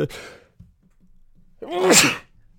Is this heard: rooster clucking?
no